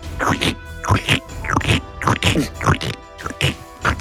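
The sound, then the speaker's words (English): A voice imitates a character's boots squelching through thick muck, making a series of wet, sucking vocal bursts in a steady stepping rhythm, fairly loud, about seven in a row. “And you look back, and Karzalek makes this this sound as his boots go through the muck.”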